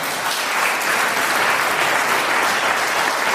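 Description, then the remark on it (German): Steady applause from many hands, a dense crackling wash of clapping that holds at an even, fairly loud level for a few seconds with no voices standing out. “der Applaus war sehr günstig geschossen.”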